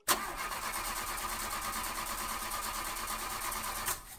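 A car engine cranks and catches, settling into a steady, whirring run that holds for about four seconds before cutting off abruptly. Fairly loud, with no voices.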